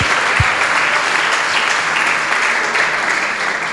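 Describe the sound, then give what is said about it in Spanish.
Loud, sustained applause from a church audience for the volunteers who serve in the church, a dense steady clatter of many hands clapping that holds its level through the whole stretch with no one speaking over it. “Así que quiero un fuerte aplauso a esas personas voluntarias que están sirviendo siempre en la casa de Dios.”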